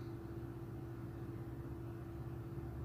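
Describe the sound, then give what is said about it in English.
An air conditioner buzzes steadily for the whole stretch, a low, even droning hum with a faint tonal whine on top. It's quiet and unchanging, and no one speaks. “You guys hear that buzzing in the background? That's the freaking air conditioner. So it's gonna buzz through this whole episode.”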